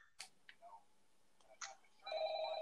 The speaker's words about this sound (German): Jetzt ruft ähm, Glitchtrap an.